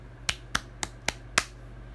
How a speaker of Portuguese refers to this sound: Quando a boneca ficou pronta, Mariana bateu palmas.